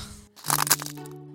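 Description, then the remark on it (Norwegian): A short cracking sound effect of a reading code cracking: a sharp, crunchy burst of snapping noise lasting about a third of a second, followed by a fading low hum, heard alone without talk. “Det var lyden av lesekoden som eh, knakk.”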